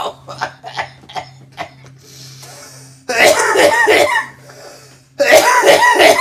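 A loud, harsh coughing fit after smoking a bowl: a few short dry hacks at first, then two long stretches of heavy, ragged, wheezing coughs, with a low steady hum underneath.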